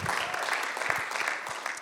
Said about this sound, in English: Yes, clap.